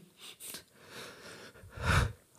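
A few sharp, breathy intakes are followed by a single loud, explosive sneeze into the microphone, with no one talking.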